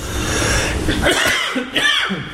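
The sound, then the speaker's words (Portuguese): A man coughs in a few rough, throaty bursts, with a short pause between the fits and a steady background hiss underneath. “deixa o marido tossir.”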